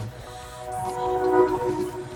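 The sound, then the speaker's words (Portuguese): A train horn blares in a steady, multi-toned blast over low rumbling, swelling louder toward the middle before easing slightly as the train passes. “Olha o trem, gente.”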